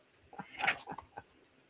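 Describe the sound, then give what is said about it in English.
A female dog makes a brief string of soft, whiny vocal noises, one slightly louder yelp in the middle, fairly quiet, with no talking. “the dogs will be locked in the other room during the show. Oh, she didn't like that.”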